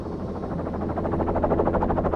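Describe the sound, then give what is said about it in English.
A helicopter flying low and dropping lower over snow as it approaches an adult male bear, its rotor chopping in a fast, steady rhythm over a loud, constant engine roar that grows slightly stronger toward the end. No voices are heard. “The pilot drops us lower, and as we approach, the adult male drops whatever was in his mouth and takes off running.”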